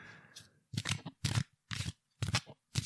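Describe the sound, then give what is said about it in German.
Playing cards shuffled ASMR-style right at the microphone, a faint rustle followed by five crisp, loud papery bursts of riffling in a steady rhythm, each separated by brief silence, with no talking. “Ich mische jetzt gerade mal die Karten”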